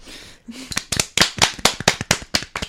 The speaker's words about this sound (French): vers qui nous revenons pour qu'elle ait droit à son deuxième round d'applaudissements.